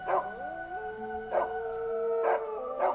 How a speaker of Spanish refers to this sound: Y un escalofrío recorrió la piel de las chicas cuando escucharon cómo los dos perros que tenían sus vecinos comenzaban a aullar.